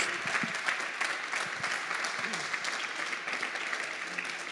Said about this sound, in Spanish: Gracias a todos y quiero invitarles que le demos un aplauso a todo lo de la radio, pero que se escuche tu aplauso para ellos.